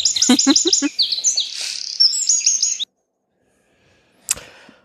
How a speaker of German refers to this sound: so, warte mal, ich mache nochmal ein Vögelchen da rein.